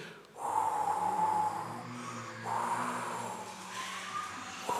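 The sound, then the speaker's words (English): A group of people blowing and whooshing through their mouths to imitate a soft, low breeze, a steady breathy rush that swells and eases in two long waves with no words spoken. “so, if, first of all, if we could start off with the wind noise of a, a low breeze, and then we'll get louder and louder and louder.”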